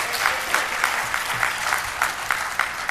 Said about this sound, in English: Let's give the Lord a hand clap of praise for being our